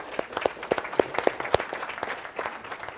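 An audience applauds steadily, many hands clapping in a dense, crackling patter with a few sharper, louder claps standing out in the first half before it thins slightly toward the end.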